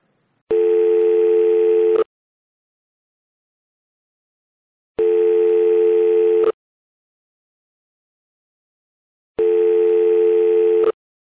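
After coins are inserted into a payphone and a number is dialed, a ringback tone sounds three times, each steady electronic buzz lasting about a second and a half and separated by long silent gaps, heard clearly as if through a phone receiver.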